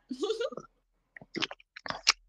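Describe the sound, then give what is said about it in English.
A quiet sip of beer, followed by a short voiced murmur, then several brief wet mouth clicks and swallowing sounds in a loose cluster. “But I will take a sip. I will take a sip from delicious. Yes, let's though. let's take a sip for that.”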